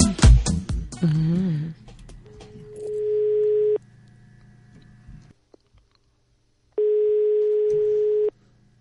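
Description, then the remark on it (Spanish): A ringback tone from a call to a mobile phone sounds twice, each a steady electronic tone of about a second and a half separated by a pause, over faint background noise, with brief voices and clatter at the start. “A ver si nos coge el móvil.”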